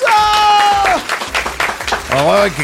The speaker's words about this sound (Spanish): Enrique de la Madrid, un aplauso.